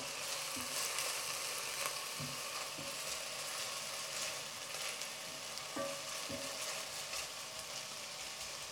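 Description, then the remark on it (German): Onions sizzle steadily in a hot pan with a dense, crackling hiss, broken by a few soft scraping and clinking stirs of a utensil against the pan. No one speaks. “Dann rühren wir mal unsere Zwiebel ein bisschen um.”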